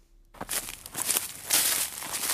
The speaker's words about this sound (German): Das Laub raschelt unter den Schuhen. Für den Laien ein schönes Geräusch, eben typisch Wald.